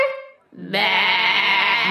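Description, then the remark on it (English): A single bleat trails off, then a loud chorus of animals bleats together in one sustained, wavering, full cry that lasts until the end. “repeat after me. Ba. Bah.”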